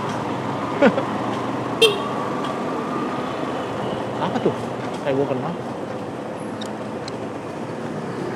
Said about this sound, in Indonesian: tapi kayaknya sih dari tadi sih kalau masalah backsound sih udah full kayaknya ini suara lalu lintas klakson mobil